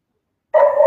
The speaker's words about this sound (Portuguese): Como é que a cachorrada tá latindo aqui no fundo?